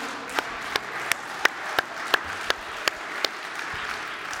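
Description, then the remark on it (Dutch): An audience in a church applauds steadily for the band, a dense wash of clapping with a few sharper, louder claps standing out at a regular pace, and no one speaking. “Hey, zullen we de band een eh, applaus geven?”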